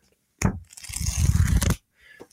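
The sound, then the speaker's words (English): A quick riffle of the pages of a physical book, Using Computers in Archaeology, a Practical Guide by Shannon McPherron and Harold Dibble: a dry, papery fluttering that starts with a soft thump and rustles on for just over a second, then stops, with no voices. “the sound of, of, of pages flipping.”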